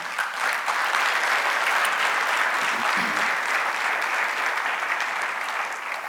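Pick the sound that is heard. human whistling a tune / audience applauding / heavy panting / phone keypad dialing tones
audience applauding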